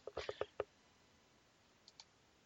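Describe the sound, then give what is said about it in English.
Soft keyboard typing, done as quietly as possible while looking up whether actor Bob Hoskins is British: a quick run of five light key clicks, then a pause and two fainter taps near the end, quiet with no voices. “Let me look that up really quick. He is. And typing as quietly as I can.”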